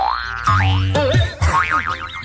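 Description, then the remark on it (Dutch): A series of loud, cartoonish boing sound effects with springy, wobbling pitch, bouncing several times in quick succession, with no voices, representing a man bouncing his eyeball against a window and back. “Die neemt die oogbal neemt hij in zijn hand. Ja. En hij stuitert hem.”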